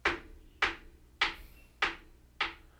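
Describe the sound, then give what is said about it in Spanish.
Five sharp, evenly spaced knocks on a hard surface, about half a second apart, imitating a ball striking a basketball backboard during free throws. Fairly loud, each with a brief ringing decay, no talking. “Golpea al tablero, a la distancia que esté se escucha como el...”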